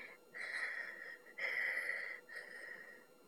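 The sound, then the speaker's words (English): Three drawn-out, wheezy snores in a steady rhythm, fairly loud, each with a whistling, breathy tone, as if a voice is playfully mimicking a child snoring: a Peppa Pig cartoon character fast asleep. No talking. “snores”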